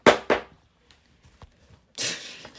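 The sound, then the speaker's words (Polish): Two sharp rustling bursts, a few faint scattered rustles and taps, then a longer scrunching rush of noise as a pet rummages through a bag. No one speaks. “rucha moją torbę”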